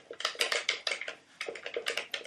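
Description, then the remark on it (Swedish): Rapid, irregular plastic clicking and clacking from a small but heavy, solid NES Advantage arcade joystick for the NES being worked, a dense flurry of sharp taps with brief pauses, fairly loud and with no one talking. “Alltså jag älskar ljudet alltså. plastiga ljudet.”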